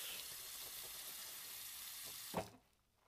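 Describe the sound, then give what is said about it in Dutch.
Water runs steadily into a sink with a broad hiss, then a brief splash near the end before the flow cuts off, leaving quiet. No one speaks. “Gewoon maar spelen met dat water.”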